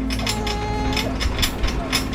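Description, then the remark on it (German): An anchor being hauled in on a boat: a rhythmic mechanical ratcheting clank repeats about every half second over a steady low engine-like hum, moderately loud and continuous. “Der Anker wird eingeholt.”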